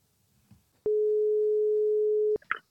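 A single steady telephone ringing tone, a clean mid-pitched beep lasting about a second and a half, starts and stops with faint clicks, with quiet handling noises around it and no talking, as Absalons Radio hosts place a call to a guest.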